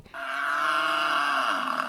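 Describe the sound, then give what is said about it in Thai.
A water buffalo gives one long, deep grunting bellow lasting nearly two seconds, loud, with a steady throaty tone that fades slightly at the end. No one speaks. “นอกจากวัวแล้วนะคะ มนุษย์เรานั้นก็ดื่มนมจากสัตว์อื่นๆด้วยค่ะ อย่างที่เมืองไทยก็มีนมแพะ นมควาย”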